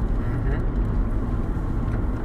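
A steady, low rumble of engine and road noise fills the inside of a moving car carrying three people, continuous and fairly loud with no breaks.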